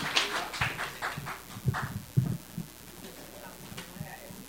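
A small audience claps briefly for a woman coming forward to speak, the scattered, uneven hand claps sounding fairly quiet before tapering off.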